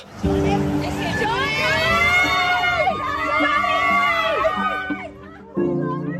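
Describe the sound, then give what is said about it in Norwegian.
A crowd of Johnny Depp's fans outside the courthouse shouts and cheers continuously to encourage him as he goes into the courtroom for his trial, many overlapping voices calling out loudly, with a brief dip near the end before the shouting resumes. “Da Depp var på vei inn i rettslokalet, så sto det en haug med fans på utsida og ropte til han for å oppmuntre han.”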